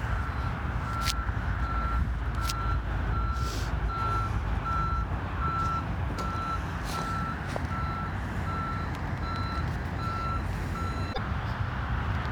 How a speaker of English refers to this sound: So what happened was there was actually a car. Get this, everybody. There was a car. It was kind of like a walking path. There's no cars allowed on this walking path, and it just I had to step to the side for a second